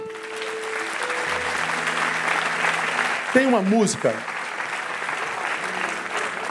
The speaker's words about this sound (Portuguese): Aplauda ele forte.